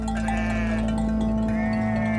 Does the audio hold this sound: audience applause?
no